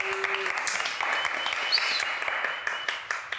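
Audience applause: a dense, steady patter of many hands clapping for a few seconds, bright and crackly, with no voices standing out above it.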